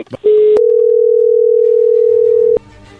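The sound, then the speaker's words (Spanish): As a phone call is being dialed, a steady, loud telephone tone holds one pitch for about two seconds after a couple of short clicks, then cuts off, leaving faint low background murmur. “vamos a llamarle en este momento, no haga ruido, por favor, ahí se está marcando.”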